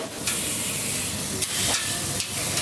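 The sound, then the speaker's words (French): Argentine meat sizzling on a parrilla, a large iron grill over charcoal from Argentina, a steady hiss of fat and juices broken by a few sharp pops and crackles, with no voices. “ça, c'est le bruit de la viande euh, argentine qui cuit sur la parilla, qui est vraiment ces espèce de grosse grille argentine en fer où on va les cuire avec le charbon qui vient lui-même d'Argentine.”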